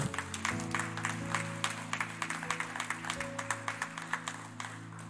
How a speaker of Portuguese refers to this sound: Se você me entende até aqui, você pode aplaudir ao nome do Senhor.